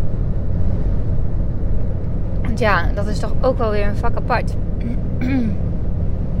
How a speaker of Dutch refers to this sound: ik zit trouwens ondertussen in de auto. Afspraak naar, eh, in Zwolle.